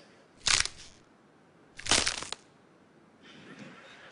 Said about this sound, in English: The next one, it's breaking bones. Well, no one was really harmed. It's actually breaking celery or frozen lettuce.